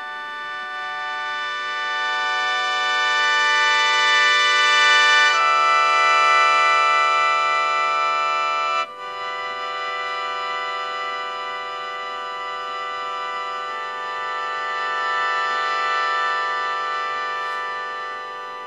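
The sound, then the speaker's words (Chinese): A sheng mouth organ sounds sustained, reedy chords of several notes at once, holding each chord steadily, shifting harmony partway through and pausing only for a brief breath before continuing. No one speaks. “乐器，尤其是管乐器当中，唯一可以吹和声的，就是笙这个乐器。所以你听笙，刚才又吹了很多音，都是有这个单音，但其实还有传统和声。”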